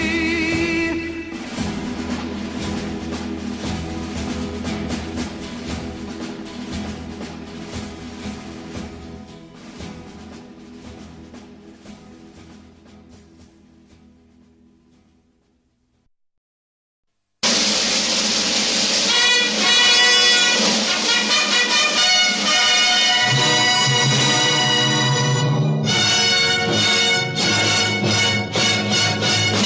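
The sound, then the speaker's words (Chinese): Full orchestral war-film march about the Normandy landing plays loudly, then fades away to a brief silence before a bright, loud new passage of music bursts in abruptly and carries on to the end. “今天我们带来的主题是战争片的音乐。嗯，刚才我们听到了诺曼底登陆这一件事情。”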